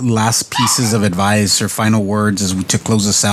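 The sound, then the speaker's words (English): A dog barks and yips in the background while a person keeps talking steadily over it, the barking partly masked beneath the voice. “but I think, and I apologize for my dog barking in the background, but.”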